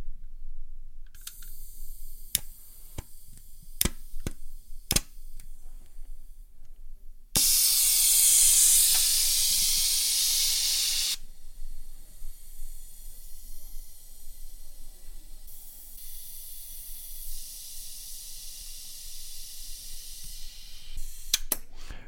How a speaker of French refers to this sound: Nous venons d'entendre le chalumeau. Ce chalumeau a été utilisé pour souder mon corps de bague. Donc c'est la première soudure que je viens de faire sur cette bague à l'aide de ce chalumeau.